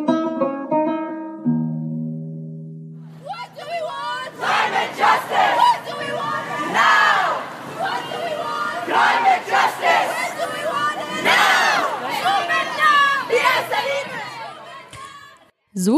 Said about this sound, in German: klingt es, wenn Fridays for Future im Libanon protestieren.